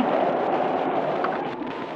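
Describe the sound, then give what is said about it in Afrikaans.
A loud, steady roar of driving rain in a storm, blowing in at a door, a dense hiss that fills the whole two seconds without letting up. There are no voices. “Help my iemand, die reën waai by die deur in.”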